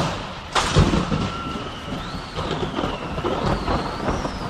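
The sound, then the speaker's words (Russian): Steady rain hisses throughout a sudden thunderstorm in an open field, broken early by a sudden, loud crack of thunder that rolls into a low rumble, with faint wavering tones drifting above the downpour. “Возвращаясь в университет после очередных каникул, Мартин был застигнут в поле внезапной грозой.”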